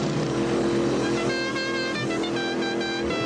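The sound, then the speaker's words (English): A loud car engine in a video clip drones steadily throughout as the car jumps, its buzzing, whining tone holding at a constant pitch as if revving hard. No one speaks over it. “Look at that car jump.”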